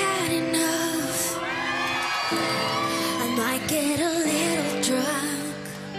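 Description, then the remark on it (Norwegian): A concert crowd at Rockefeller in Oslo, Norway, cheers and chatters, with shouts and whoops rising over a steady, loud wash of voices while music carries on underneath for the whole stretch. “God stemning blant publikum, men under slike konserter er det også mange forstyrrelser, sier Aftenpostens musikkjournalist Robert Hoftun Gjestad.”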